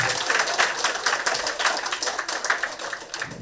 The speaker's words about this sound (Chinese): 再给默默一轮掌声好不好？来。